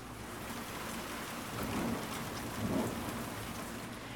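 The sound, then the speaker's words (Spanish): Steady rain hisses across the whole stretch, dense and even, with two soft swells of low thunder rumbling underneath. No one speaks. “Mira, ya se pasó un poquito la lluvia.”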